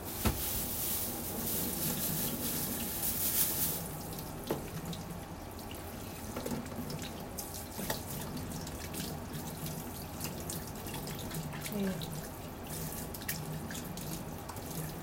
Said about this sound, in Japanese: もうまな板と包丁はいらないので流しておきます